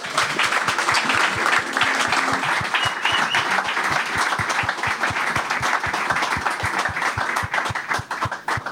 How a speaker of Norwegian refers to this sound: Tror vi sier eh, hjertelig takk til gutta fra tredjedivisjon. Gi dem en skikkelig applaus.